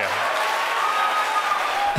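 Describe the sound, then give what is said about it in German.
A team cheers and applauds steadily after confirmation that a Starlink batch of 60 satellites was deployed into orbit, a dense, continuous wash of clapping and excited voices that stays loud and even throughout. “Da jubeln die natürlich, klar.”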